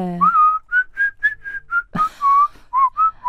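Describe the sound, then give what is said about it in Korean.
A person whistles a twangy, western-style melody, the background music from the western film A Fistful of Dollars, in a run of clear, sustained notes with short gaps, fairly loud, with a brief breathy noise partway through. “오, 어, 휘바람.”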